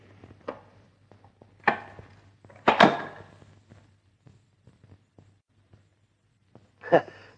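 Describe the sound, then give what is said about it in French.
An air-regeneration apparatus mounted overhead, which supplies oxygen and absorbs carbonic acid by a half-chemical, half-mechanical process, is switched on: several mechanical clunks and clicks, the loudest in the middle, over a steady low machine hum that runs throughout. Nobody speaks. “qui, d'une part, fournit l'oxygène et qui, d'autre part, absorbe l'acide carbonique par un procédé mi-chimique, mi-mécanique.”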